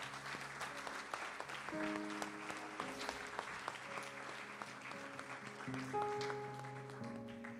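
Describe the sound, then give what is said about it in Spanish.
An audience claps loudly and steadily for the Lord, a dense, continuous crackle of many hands, while sustained keyboard chords shift and hold underneath throughout. “¿Por qué no le da un aplauso fuerte al Señor?”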